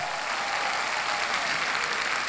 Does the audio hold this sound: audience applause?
yes